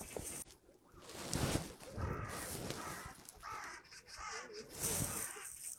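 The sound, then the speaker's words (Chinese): Crows fighting magpies caw loudly and harshly again and again, their rough calls overlapping in an agitated, irregular burst of squabbling, with a steady hiss of background noise underneath. “乌鸦在和喜鹊打架，呵，呵，这是这是四两只乌鸦，五只喜鹊，三只喜鹊在这儿徘徊，然后也是你听，这肯定就是他们有有激烈冲突的时候才会这样的。”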